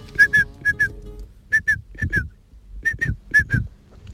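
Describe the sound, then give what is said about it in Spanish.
A hunter's partridge call whistle dating from about 1970 is blown in quick, bright two-note chirps, repeated in a steady rhythm several times. The notes are loud, with no talking over them. “lo más raro que yo tengo guardado es un silbato de reclamo de perdices de mi padre que en paz descanse que era cazador.”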